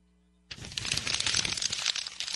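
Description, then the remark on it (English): Paper rustles and crinkles steadily after a brief quiet start, a dense scratchy texture of sheets being handled that continues to the end, with no voices. “Is that is this the paper that your drinking game is on, right here?”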